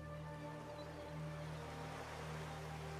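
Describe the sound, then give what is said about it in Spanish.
Soft, steady wash of ocean waves breaking on a shore, heard faintly and swelling slightly midway, layered over a low sustained ambient drone with no voices. “Tal vez puedas escuchar las olas rompiendo contra la orilla y algunas aves marinas volando sobre tu cabeza.”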